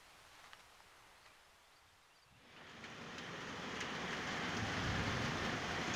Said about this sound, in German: Mittlerweile hat es sich wieder eingeregnet hier in Schabeljak. Aus dem Fenster unserer Unterkunft sehe ich nur den Regen und die ihn begleitende graue Tristesse.